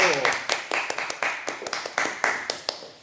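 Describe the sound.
Audience applause welcoming a guest, with sharp, fairly rhythmic claps over a steady wash of cheering voices, holding a lively, even loudness for the few seconds.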